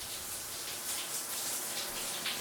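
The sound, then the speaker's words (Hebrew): A steady, even hiss of shower water spraying, soft and continuous with no pauses, heard on its own without any voices. “תחשבו על מפל ענק של מים מול הטוש שיש לנו במקלחת.”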